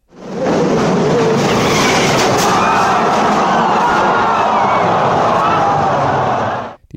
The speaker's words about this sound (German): Ihr Wagen hob ab, flog über einen Fangzaun und krachte auf ein Podest voller Fotografen.